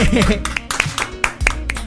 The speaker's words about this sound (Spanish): Un gran aplauso para él, hermanito.